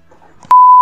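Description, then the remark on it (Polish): A loud, steady censorship bleep cuts in abruptly halfway through, holding one flat pitch until the end, after a brief stretch of faint, muffled voice. “No i będę musiał pikać.”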